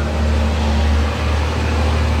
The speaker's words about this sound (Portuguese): Lá vem outro caminhão.